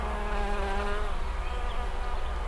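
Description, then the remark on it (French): Small flies buzz steadily around a little boy's ears in a forest for a couple of seconds, a continuous whining drone with slight wavering pitch and no voices. “Les petites mouches viennent bourdonner dans les oreilles du petit garçon et viennent se poser sur son visage.”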